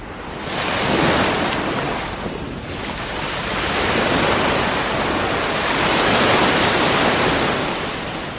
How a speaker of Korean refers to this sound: 제가 지금부터 두 가지 버전의 바다 소리를 들려드릴 건데 이 중에서 부산 해운대 바다 소리는 무엇인지를 맞춰주시기 바랍니다.